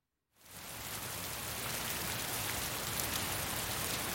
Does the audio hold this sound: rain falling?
yes